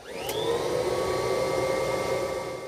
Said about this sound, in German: Spaceman holt seinen Special Space Sauger hervor und fängt an, Sternenstaub zu saugen.